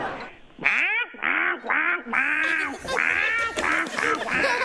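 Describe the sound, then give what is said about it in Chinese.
A person imitates a duck with a rapid string of loud, nasal, harmonic quacks, about eight or nine bursts in quick succession with short gaps between them. “鸭子叫啊”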